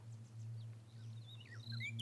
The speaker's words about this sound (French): Oh, écoute, tu entends J'aime bien le bruit des oiseaux, ça m'apaise. C'est dommage, on n'en voit plus beaucoup, comme tout le reste.